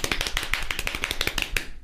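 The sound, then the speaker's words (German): A rapid run of sharp knocks, around fifteen quick raps in under two seconds, fairly loud, with no voices over them. “Soll ich da mal klopfen?”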